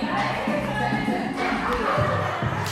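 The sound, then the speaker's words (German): Twenty-four thighs slap against a floor in the background in a busy, overlapping patter, with a few sharper smacks standing out near the end over a steady murmur of activity. “Das, was man jetzt im Hintergrund hört, ist übrigens das Geräusch, wenn 24 Schenkel auf dem Boden klatschen.”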